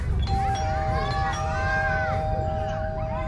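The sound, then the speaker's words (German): A two-tone doorbell chime rings out, the second note sustaining, over a busy background of excited voices and lively commotion. “Der Brokkoli klingelte.”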